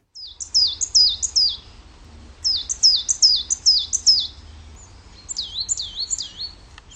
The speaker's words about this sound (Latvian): Nu, kas tur dziedāja? Tie bija kaut kādi mazi putniņi. Mm -hmm. Man, liek, man liekas, ka zīlītes.